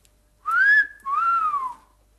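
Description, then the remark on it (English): A clear two-part whistle rings out on its own as a signal from a garden, the first note rising and the second sliding downward, loud with no voices around it. “when I heard a whistle.”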